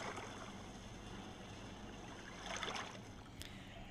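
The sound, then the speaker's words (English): Gentle water waves wash steadily in a soft, continuous hiss, with one slightly fuller swell rising and fading near the end. No voices, just the calm, even lapping of water. “Why the heck am I having them listen to rain or waves? Maybe we'll do bigger waves.”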